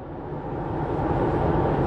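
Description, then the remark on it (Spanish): A steady, continuous rumble of a car driving in the left lane of a highway and passing a black car, with deep road and engine noise filling the background at an even, moderately loud level and no voices. “Eso todo lo que ustedes están escuchando, eso es en tiempo real, me están oyendo, manejando.”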